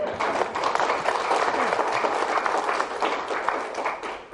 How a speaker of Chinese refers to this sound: 所以诸位朋友，你有没有信心不得癌症？有好，掌声鼓励一下。